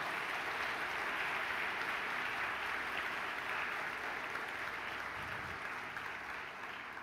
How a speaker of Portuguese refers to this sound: Pode aplaudir ao Senhor Jesus por isso aí, bem forte mesmo.